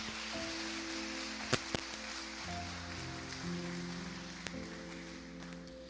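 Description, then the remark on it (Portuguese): An audience applauds at a church service after the preacher invites them to clap for the Lord, in a steady, dense wash of clapping, with sustained low keyboard chords underneath and a few sharper knocks breaking through. “Se for a Ele, pode aplaudir.”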